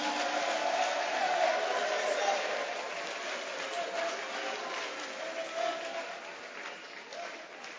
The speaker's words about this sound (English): Clap your hands for the Lord. don't want me to come to you, we have to be laughing, we have to be clapping. You see?